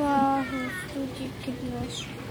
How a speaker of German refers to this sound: Ja, ich höre die Kinder noch schreien.